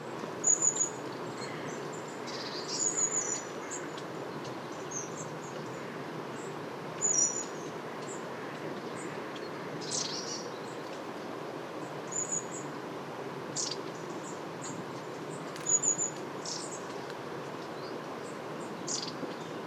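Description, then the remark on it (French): Thin, very high calls and short trilling bursts of long-tailed tits come in scattered clusters every few seconds, fairly faint against a steady low background hiss, with no voices. “Mésange à longue queue.”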